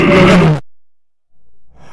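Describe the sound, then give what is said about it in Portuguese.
A loud lion roar bursts out for about half a second and cuts off sharply, leaving near silence before a faint rustle of background noise returns. “Eu quero ver o leão rugindo lá em Belo Horizonte.”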